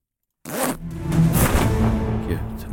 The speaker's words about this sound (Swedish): det låter som att han drar ner gylfen på den där.